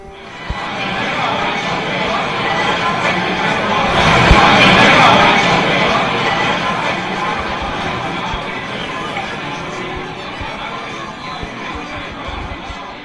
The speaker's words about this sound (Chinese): 这时，马德斯说：“请大家允许我讲一段《伊索寓言》吧。” 欢呼起来。